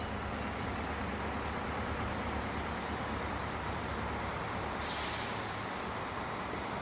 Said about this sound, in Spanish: El autobús aparca en el andén. En el parabrisas hay un cartel que reza Londres-París.